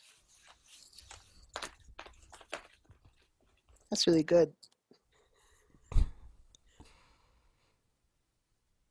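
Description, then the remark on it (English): Crinkly rustling and tearing as a wrapped gift is opened, with scattered crunchy bursts, a brief spoken remark midway and a soft thump near the end. “Uh, these are this, these are opening sounds.”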